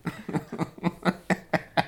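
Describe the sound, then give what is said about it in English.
A person imitates a cat throwing up with a quick series of about eight rhythmic, throaty hacking heaves, evenly spaced, growing slightly sharper toward the end. “the sound of a cat vomiting.”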